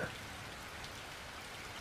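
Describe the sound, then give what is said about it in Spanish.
Steady rain patters against the window of a house, a soft continuous wash of tiny drops with an even, unbroken texture and no voices, heard quietly from indoors. “No había nadie, ningún ruido, más que el impacto constante de la lluvia en mi ventana.”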